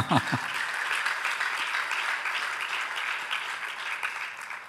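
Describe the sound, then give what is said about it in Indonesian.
A crowd applauds steadily, a dense wash of many hands clapping that holds for several seconds before starting to fade, with a brief voice-like sound at the very start. “Mana tepuk tangannya?”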